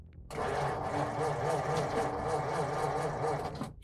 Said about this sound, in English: Surinder, meanwhile, was having trouble starting the car.